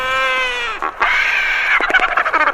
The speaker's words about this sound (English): Albatross noises.